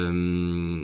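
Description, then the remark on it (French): A telephone rings behind the speakers with a single sustained, buzzy electronic tone rich in overtones, loud, holding steady for nearly a second before cutting off. No one speaks. “une faute qui sonne derrière nous, le c'est le téléphone du Tianoc qui sonne”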